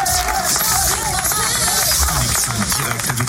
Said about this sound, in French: Applaudissements pour elle.